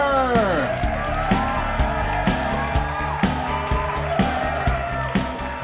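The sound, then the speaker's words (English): An audience of the Hollywood show Rated G Radio applauds the host, cheering, whooping and yelling continuously for several seconds. The roar stays loud and steady, with high rising shouts layered over a dense wash of noise and a regular pulsing beat underneath. “Oh, I love it when everybody applauds for me.”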